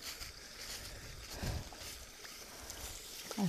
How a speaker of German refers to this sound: Ich gehe gerade spazieren im Wald und die Blätter rauschen, rauschend unter mir. Ich hoffe, dass es nicht zu so laut ist.